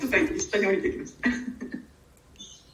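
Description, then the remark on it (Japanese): A young child, the speaker's son who has just come by, calls out in a few short, squeaky, high-pitched bursts in the background, with no clear words and brief pauses between. “今ね、な 今声入っちゃったかもしれないですけど”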